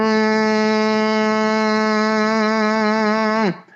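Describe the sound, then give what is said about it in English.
A single steady, buzzy hum on a closed-lip M sound, a semi-occluded (partially closed) phonation buzzing on the nasal M, held at one pitch for about three and a half seconds, fairly loud, then cut off abruptly. “I mean I'm buzzing on an M.”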